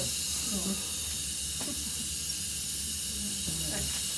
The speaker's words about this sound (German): So, ich lasse nochmal Luft raus, wird nochmal ein bisschen laut.